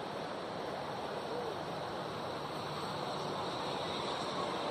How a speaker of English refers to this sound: There was an 18 wheeler just behind the Dilophodon's head. We're right beside a major highway